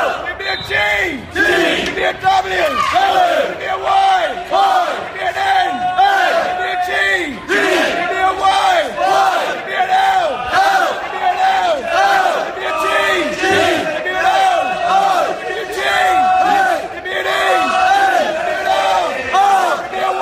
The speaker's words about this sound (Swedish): Ni kan typ spola fram en minut för att höra slutet på ramsan.